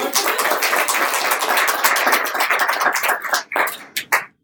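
A crowd applauds with dense, steady clapping that stays loud for several seconds, then thins into a few scattered claps before stopping.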